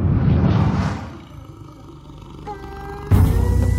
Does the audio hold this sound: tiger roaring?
yes